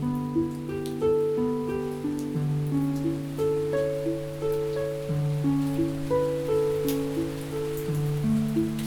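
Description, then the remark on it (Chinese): Steady rain patters close by, a soft continuous hiss beneath a gentle melody of plucked harp notes that ring out and overlap in a slow, flowing pattern. “好，这个雨其实这个雨的声音离我们蛮近的哦。”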